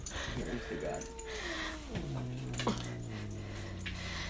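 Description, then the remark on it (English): A cat and dog squabble, with drawn-out whining and yowling cries that bend in pitch, sliding lower and settling into a steady low moan over a few seconds. “Please ignore the cat and the dog arguing a bit.”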